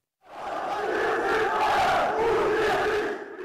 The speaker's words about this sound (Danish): vi er Bayern. Det er I ikke, gælder det her fra Bayern-fans, så man kan høre det på et lydklip fra det tyske medie Deutsche Welle.